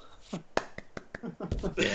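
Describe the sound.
A single person claps several times in a quick, fairly steady rhythm, the sharp claps close and clear, with some voices murmuring underneath.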